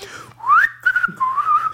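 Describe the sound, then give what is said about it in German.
A man, a neighbour who plays trumpet in a band, whistles a bright, bouncy melody as he leaves the house: a rising swoop, then a string of short and held notes, fairly loud, with no talking over it. “Und das regt ihn so auf, dass der, wenn er aus dem Haus geht, dann pfeift er immer ein fröhliches Lied und so wirklich sehr laut.”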